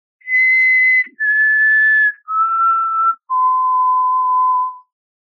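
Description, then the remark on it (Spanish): A person whistles an imitation of a common potoo's night call, the bird locally called bien parado: four long, mournful notes, each held about a second and stepping lower in pitch, loud with no other sounds. “Ese es el que llaman bien parado, que hay mitos que lamentablemente existen sobre él y muchas personas creen que es una bruja”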